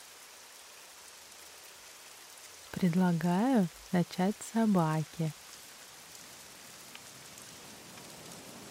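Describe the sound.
Steady rain patters on a surface as a soft, even hiss throughout, with a woman's voice speaking briefly over it midway.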